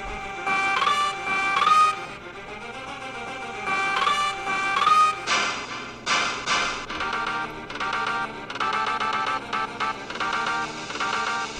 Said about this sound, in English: Let's fucking get into the game let's talk about my my run through uh, Donkey Kong Country 2, and let's fucking slide in a little bit more music right here. Why not? This game deserves it.